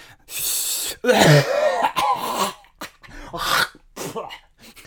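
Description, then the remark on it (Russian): A person imitates a heavy smoker's cough: a loud run of harsh, raspy hacking bursts, one after another, growing weaker toward the end. No speech. “вот это заядлый курильщик.”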